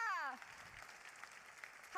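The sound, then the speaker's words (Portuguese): Congregation applause for the Lord, a dense, steady crackle of many hands clapping at moderate loudness, framed by a man's raised voice briefly at the start and returning at the very end. “Aplauda o Senhor.”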